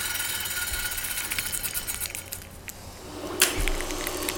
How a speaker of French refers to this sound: Je vais maintenant ouvrir la cage thoracique. Tu vas voir, les bruits ils sont vraiment horribles.